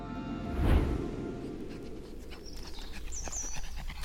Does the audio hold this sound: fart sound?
no